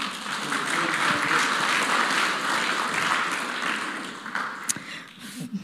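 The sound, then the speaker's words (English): A crowd applauds steadily for a young woman coming up to speak, a dense wash of clapping that holds for several seconds before thinning out, with a few scattered claps and a brief voice near the end. “Give her a clap.”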